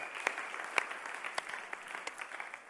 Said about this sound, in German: Das heißt, lass uns Gott nochmal richtig die Ehre geben, indem wir einen fetten Applaus Gott aussprechen.